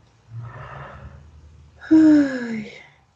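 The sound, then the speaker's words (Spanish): A voice acts out a yawn: a long, breathy inhale, then a loud, voiced exhale that slides downward in pitch and fades away. “Bostezó.”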